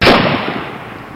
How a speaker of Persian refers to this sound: قماندان لاشه تیاره و بالهای متلاشی شده رو نگاه میکنه با بدگمانی به جوالا و توبره ها خیره میشه بعد ماشیندارش از شانه به دست میگیره صدای گلوله بلند میشه و رأسن به پیشانی نسیم میشینه